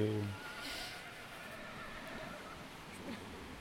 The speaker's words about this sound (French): Il y a des chevaux.